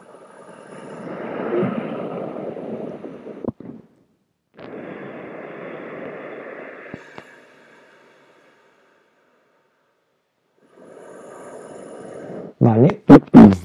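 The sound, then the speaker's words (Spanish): Slow, raspy ocean (ujjayi) breaths drawn through a constricted throat and amplified on the microphone, three long whooshing cycles with pauses between, ending in a few louder, rougher bursts. “Una respiración oceánica”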